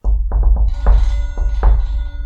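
Several knocks on a desk in an uneven pattern, some quick and clustered, others spaced apart, demonstrating a knock signal, while a faint sustained ringing chime from a clock standing on the desk hums beneath the later raps.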